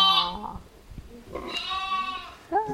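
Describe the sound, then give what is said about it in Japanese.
Several sheep bleat loudly at close range, their wavering calls overlapping in quick succession, with one more cry breaking in at the very end. “これからの時代、もしかしたら、その中山間地限定かもしれませんけれども、羊飼いの時代なんじゃないか”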